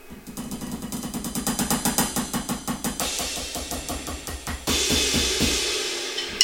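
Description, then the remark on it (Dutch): Electronic ride cymbal struck in a steady run of roughly twenty quick hits, moving from the bell out to the edge, the bright shimmering wash building and sustaining toward the end. “Je, ik liep nu even, even van de bel naar, naar, buiten toe, over naar de edge toe.”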